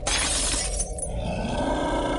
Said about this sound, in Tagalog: Narinig niyang parang may natumba sa ibabaw ng lamiseta tapos nakita niya yung shot glass na nalaglag at nabasag sa kabilang dako.